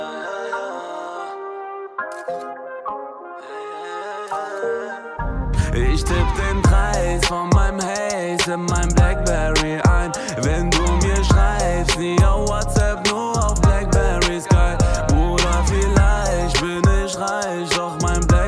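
A song plays: a few seconds of soft melodic intro, then a full band with driving drums comes in and continues loud and steady, with no talking over it.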